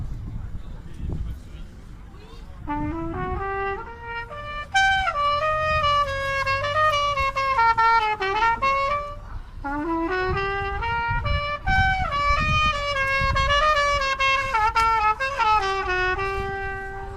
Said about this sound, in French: Petite respiration musicale, bien loin.